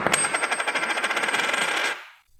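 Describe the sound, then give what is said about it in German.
A Maple Leaf gold coin dropped from a height of about 10 centimetres onto a hard surface, ringing with a bright metallic tone and rapid chattering bounces that settle into a sustained ring before fading after about two seconds. “Das ist der Krügerrand und jetzt im Vergleich dazu nochmal der Maple Leaf.”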